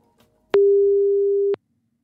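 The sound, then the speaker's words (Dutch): A single steady telephone line tone as BNR Nieuwsradio places a call to someone in Brazil, a pure mid-pitched beep holding for about one second with sharp clicks at its start and end, loud and alone after a brief quiet moment. “Laten we hem even gaan bellen.”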